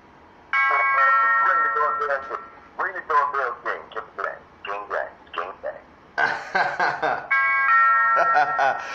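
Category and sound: household object, doorbell ringing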